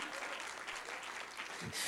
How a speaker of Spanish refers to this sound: Dale una ofrenda de aplauso al rey.